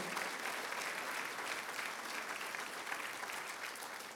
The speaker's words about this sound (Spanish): Aplaude, decía al Señor.